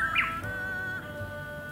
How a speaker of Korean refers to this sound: 섬 휘파람 새. 그 마음을 아는 듯 아름다운 노랫소리를 들려주는데요.